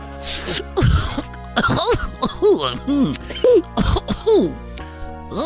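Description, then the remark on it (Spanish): A voice imitates heavy coughing from smoking marijuana: a run of about seven exaggerated, rasping, voiced hacks in quick succession, loud, each with a strained wheezy pitch. “o sea, es Barney tosiendo, güey, pero marihuana así.”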